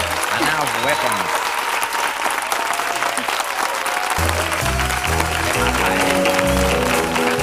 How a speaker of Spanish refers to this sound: Un aplauso, guapa.